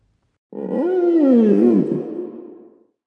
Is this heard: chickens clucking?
no